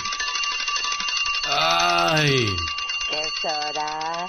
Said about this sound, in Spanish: En la mañana está uno bien, dormido bien, a gusto bien, calientito ahí en la camita. Y de repente nomás escuchas el reloj despertador, que suena... Ay, hasta parece que le dan volumen